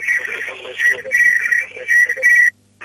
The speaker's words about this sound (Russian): выключите приемник, иначе э, у нас фонит.